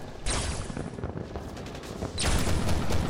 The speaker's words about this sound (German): Währenddessen könnt ihr das Knacken von anderen Laserfeuern hören, die da wohl auf euch eröffnen.